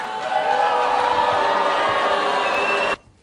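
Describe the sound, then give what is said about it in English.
A loud crowd at CPAC reacts with a mix of clapping and booing as Texas Congressman Ron Paul is announced winner of the CPAC straw poll, a dense, steady roar of hands and voices that holds for about three seconds, then cuts off abruptly. “Mixed applause and boos as uh, Ron Paul was announced over the weekend.”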